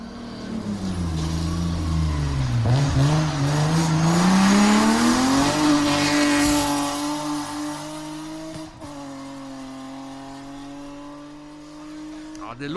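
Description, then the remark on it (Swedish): A rally car engine at a Swedish championship rally in Fagersta in August revs hard and climbs in pitch as it accelerates uphill, loud, with gear changes and a brief dip before the strained, steady drone continues. “Vi kan ju lyssna på ett klipp hur den låter från SM-tävlingen eh, här i Fagersta, nattkröken som gick i augusti.”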